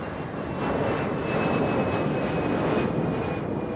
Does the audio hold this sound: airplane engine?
yes